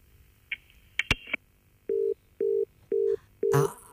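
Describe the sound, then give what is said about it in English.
A phone line on a radio broadcast call drops with a couple of sharp clicks and a brief high chirp, then a steady run of four evenly spaced, mid-pitched beeps of a disconnected-line tone, clear and unaccompanied by talk. “Oh, it looks like we've lost the line there.”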